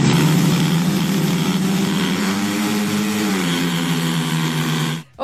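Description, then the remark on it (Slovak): Loud, buzzing speedway motorcycle engines roar continuously at high revs at the speedway oval in Žarnovica, Slovakia, their pitch rising and falling as the bikes race, with a harsh saw-like edge. The sound cuts off abruptly at the end. “to znie tak trochu ako píla, ale nie. Sú to plochodrážne motorky.”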